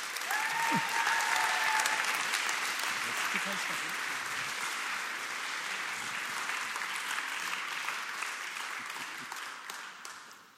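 Sustained applause from a sizable audience, a dense wash of clapping that starts loud, holds steady for several seconds, then gradually thins and fades near the end, with faint vocal murmurs early on.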